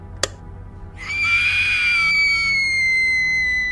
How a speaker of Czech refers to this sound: výkřik byl ohlušující.